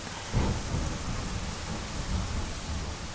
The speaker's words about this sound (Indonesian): hujan teman-teman doa dulu buat hujan